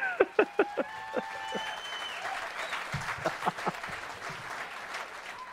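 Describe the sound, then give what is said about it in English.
A crowd applauds and cheers, with a few sharp, loud claps at the start giving way to steady, dense clapping. Whoops and whistle-like calls rise above the applause throughout. “and the crowd goes wild.”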